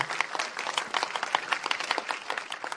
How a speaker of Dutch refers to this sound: Zullen jullie een applaus geven aan deze mensen nog een keer?